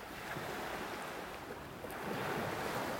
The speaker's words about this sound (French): le bruit des vagues, le soleil chaud sur ma peau, la douce sensation du sable fin, le vent qui donne un brin de fraîcheur dans cette chaleur humide et presque étouffante.